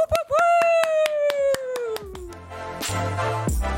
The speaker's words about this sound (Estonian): nii et äh, pange käed kokku, tehke kõvasti lärmi,